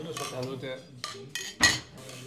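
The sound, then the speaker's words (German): Glasses clink together in a toast: a couple of light taps followed by one louder, bright clink that rings briefly, with a low murmur of background sound throughout. “Müssen wir mal anstoßen.”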